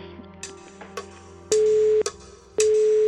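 A telephone busy tone follows a few soft clicks: two loud, steady, evenly spaced beeps on the line, with no one speaking.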